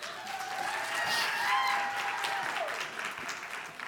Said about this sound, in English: Can y'all clap it up for my lovely wife?